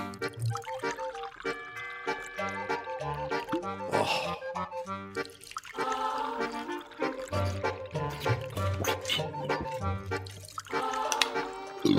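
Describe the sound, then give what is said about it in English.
Water glugs and pours from a big jug, a continuous burbling stream with hollow gurgling pulses that shift in pitch as the vessel fills, with no talking. “It's time for some water. Hang on.”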